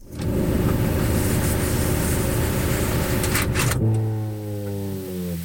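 A Volkswagen Passat engine idles with a loud, steady rumble, then cuts off abruptly as the car is switched off; right after shutdown a tonal whine with several layered pitches lingers and slowly shifts in pitch. No one speaks.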